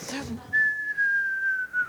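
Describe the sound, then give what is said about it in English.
A person whistles a single long, clear note that slowly glides downward, imitating a cartoon character falling all the way to the ground, like Wile E. Coyote in the Road Runner cartoons. A brief breathy vocal sound comes just before the whistle starts. “You want to help me out with the whistle?”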